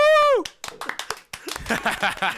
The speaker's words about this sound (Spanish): le aplaudimos porque Gibby pudo